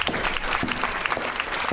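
An audience at a company claps steadily to welcome a speaker for a talk on bullying prevention, a dense patter of many hands with sharp, irregular slaps filling the whole clip at a fairly even, moderate loudness.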